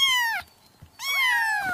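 Two drawn-out cat meows, fairly loud, separated by a brief quiet pause, with no talking.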